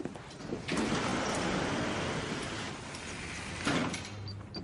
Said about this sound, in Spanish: Va hacia la entrada y cruza dos puertas correderas.